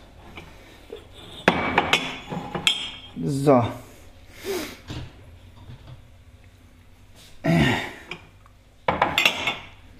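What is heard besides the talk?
glasses clinking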